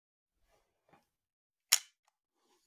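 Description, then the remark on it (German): A single sharp, snappy click from the shutter of a cheap Kodak film camera bought on Amazon, fairly loud against quiet surroundings, with a few faint handling rustles before it, as a photo is taken. “Ähm, das ist so eine, so eine Billo-Kamera von Kodak, ähm, von, von Ama Amazon.”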